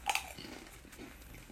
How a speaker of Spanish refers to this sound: mientras que seguimos comiendo las patatas